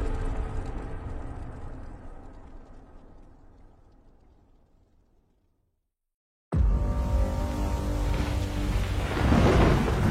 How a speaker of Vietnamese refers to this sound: Ngoài trời đổ mưa to, mái tóc ướt của người đàn ông nọ sũng nước, rủ rượi chảy long tông suốt quãng đường.